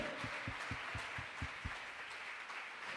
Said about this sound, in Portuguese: Se for aplaudir, é para ele.